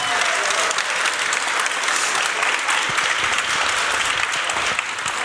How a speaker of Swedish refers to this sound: Och det eh. gör vi här i, i, i Umeå. Ja, inför eh, publik. Inför publik. Här finns det en publik. Kan ni applådera?